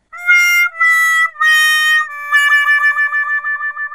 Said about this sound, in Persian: صدای سازدهنی می آید.